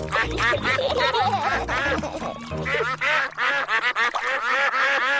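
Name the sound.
ducks quacking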